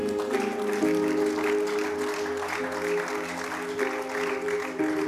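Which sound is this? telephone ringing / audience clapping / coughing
audience clapping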